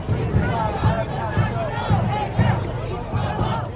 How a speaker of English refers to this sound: as a woman of color, to be surrounded by a crowd of white people yelling, fuck white supremacy, just feels like progress.